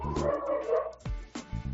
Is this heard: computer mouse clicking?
no